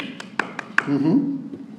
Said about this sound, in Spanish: o sea, le hace, aplaudieron, batieron las manos sobre ti